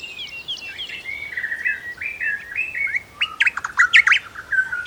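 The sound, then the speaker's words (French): Birdsong: a lively run of high, warbling phrases and quick chirps, continuous and varied in pitch, growing busier with sharp rising notes toward the end, with no voices present. “Depuis la naissance des civilisations, de l'Asie à l'Occident, chez les musulmans comme chez les chrétiens ou les bouddhistes, aucun son de la nature ne fascine autant l'homme que le chant des oiseaux.”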